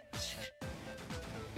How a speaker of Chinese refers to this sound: 嗯，我清清嗓子啊。